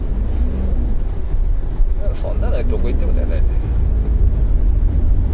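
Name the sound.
car interior road noise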